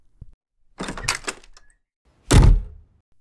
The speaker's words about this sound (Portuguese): abre a porta e fecha a porta.